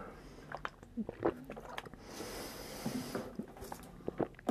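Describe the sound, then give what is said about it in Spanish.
Wet mouth sounds of someone taking a last sip of water and swallowing, with small clicks, a soft breathy slurp in the middle, and a few gulps, no talking. “Ah, voy a darle un último, un último trago a mi agua.”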